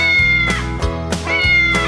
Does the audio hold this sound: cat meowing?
yes